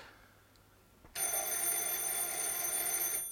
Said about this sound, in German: Dreimal. Es hat dreimal geläutet. Aber das, das ist unmöglich. Still. Vielleicht läutet es noch einmal. Nein. Das Telefon hat nur dreimal geläutet.